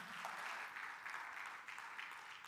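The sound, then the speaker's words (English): A church audience applauds steadily during a Church Planting Sunday service, a dense wash of many hands clapping at once, fairly soft, with no talking over it. “Someone was about to clap for that. Why not?”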